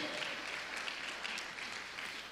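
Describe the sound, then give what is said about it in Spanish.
A crowd claps steadily in praise of the Lord, a dense, continuous patter of many hands blending into a bright, even wash of applause without pause. “Si usted se goza con eso, le da palmas al Señor, hermano.”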